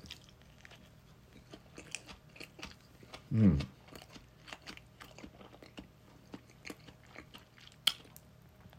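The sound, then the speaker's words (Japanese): Someone chews a vegetable mix sandwich with lettuce, tomato, cucumber pickles and Caesar mayonnaise, soft moist crunches and bites ticking along irregularly, with a fuller munch around the middle and a sharp click near the end. A brief murmured voice is heard. “この、シーザーマヨネーズっていうのが、うん。意外とパンチがあって、”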